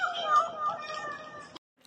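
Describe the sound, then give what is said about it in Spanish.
A single drawn-out, deep cat meow from the cage of a champion cat, fairly loud, holding a steady low tone for over a second before cutting off abruptly into silence. “Al terminar de decir esto, se escuchó un profundo maullido de aprobación proveniente de la jaula de uno de los campeones, que hizo reír a todos los asistentes”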